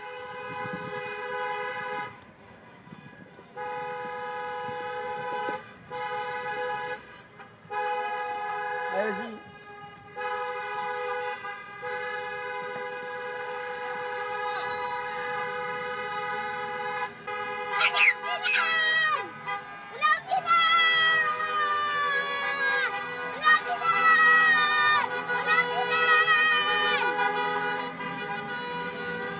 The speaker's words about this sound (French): Les Pitivériens se sont précipités hors de chez eux pour aller klaxonner dans le centre de la ville